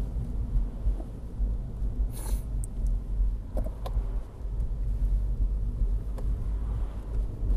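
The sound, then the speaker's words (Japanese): An oncoming car passes close by the speaker on a road, going the other way, amid heavy low rumble and wind buffeting, with a brief hissing swell midway; no one speaks. “あ、ちょうど怖いところで車とすれ違う。”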